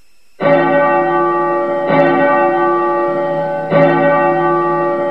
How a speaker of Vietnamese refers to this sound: bỗng nghe từ phía thiếu lâm tự tiếng chuông vang lên dồn dập nghe thật khẩn cấp